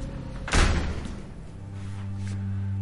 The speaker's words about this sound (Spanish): Asustada, mira hacia la puerta. Alonso abre la puerta de una patada.